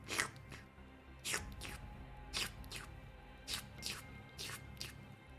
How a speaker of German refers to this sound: Judy, du bist die Einzige, die dieses merkwürdige Plätschern hört. Aus einem Brunnen direkt neben dir.